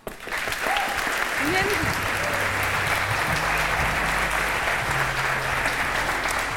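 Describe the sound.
A crowd applauds steadily as a guest is welcomed onto a show's stage, a dense wash of clapping that holds at an even, loud level throughout, with a few indistinct voices and low tones faintly underneath.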